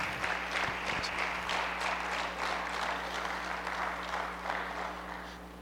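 An audience applauds the Lord steadily, a dense wash of many hands clapping at a fairly even level for several seconds before easing slightly toward the end, with a low hum underneath.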